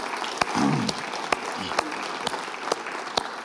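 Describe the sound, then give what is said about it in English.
An audience at a church applauds the band in a new space with steady, dense clapping at moderate volume, a few sharper claps standing out, and a brief voice rising through it near the start. “But let's give the bridge band a round of applause.”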